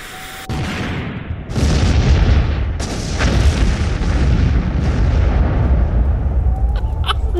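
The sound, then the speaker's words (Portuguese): A loud explosion among trees, blasting against the surrounding trees: a sharp blast followed by a second burst, then a long, heavy rumbling roar that lingers and slowly fades, with faint crackling debris near the end. “É uma questão de tempo até vocês perceberem aquela explosão.”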